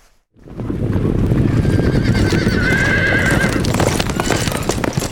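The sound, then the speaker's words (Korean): A mass of horses gallops, hooves drumming in a dense, continuous rumble, while a horse lets out a long, high whinny partway through. The horses carry troops led by Jeong Chung-sin and Nam I-heung, rushing toward Jeotan in Pyeongsan. No one speaks. “한편 정충신과 남이흥 등은 저탄에서의 참패 소식을 듣고는 지휘하던 군사를 거느리고 불이 나게 달려옵니다.”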